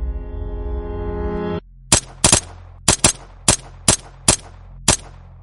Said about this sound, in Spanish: El 24 de julio de 2013, Nueve disparos acabaron con la vida de Francisco Jiménez Vargas, de 42 años y conocido como Nano.